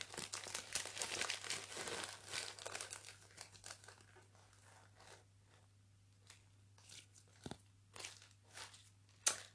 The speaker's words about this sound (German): So, also, das hier ist dieser äh, Fluffy Slime, den ihr jetzt dann bald vielleicht hören könnt.